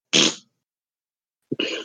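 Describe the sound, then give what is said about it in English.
Two sharp, breathy sneezes about a second and a half apart, each a loud noisy burst, with silence between them and no talking. “Bless you.”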